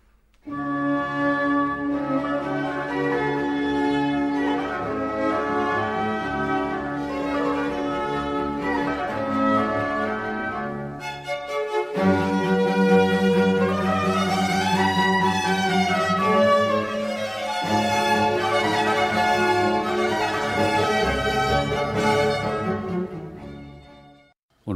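Orchestral music with violin and cello in a sinfonia concertante style, a steady, full ensemble playing sustained harmonic lines at moderate loudness throughout, with a brief pause partway before the strings resume.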